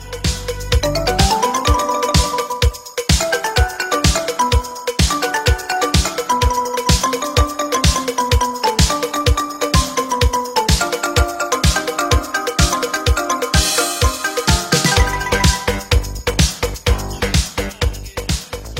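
An upbeat instrumental pop tune with a bright synth-like melody over a steady, driving beat and bass, playing loudly with no voices throughout.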